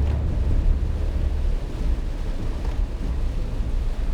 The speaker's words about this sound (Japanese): まだ上陸はしてないんだよね静岡辺りだと思います神奈川県にはまだ上陸してないんですけど雨はかなりひどくなってきました